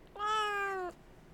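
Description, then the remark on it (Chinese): A single sustained meow from a pet cat coaxed by its owner to call out, about three-quarters of a second long, clear and fairly loud with a steady, slightly falling tone, heard alone with no talking. “宝贝，喵。”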